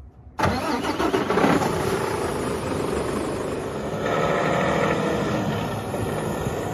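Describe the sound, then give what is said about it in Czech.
A heavy truck engine, a lorry bought to carry aid to Ukraine, cranks and roars to life, then settles into a steady, rumbling idle, loud and continuous with no voices. “Matouš z peněz firmy koupil kamion”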